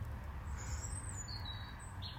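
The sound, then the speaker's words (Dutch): Birds chirp and tweet in short high-pitched calls in a garden, a few overlapping songs, over a steady low rumble of background noise. “naar de tuin van …, die daar tussen de vogeltjes een gedicht leest”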